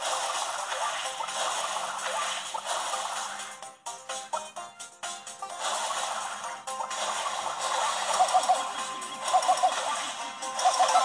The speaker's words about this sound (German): Und auch dieses Schussgeräusch, wenn der Sch Schuss trifft.